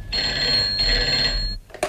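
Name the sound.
telephone bell ringing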